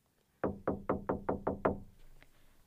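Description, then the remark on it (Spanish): Seven quick, evenly spaced, loud knocks on a door, followed by a brief faint tap and quiet background. “Hija, ¿puedes abrir la puerta?”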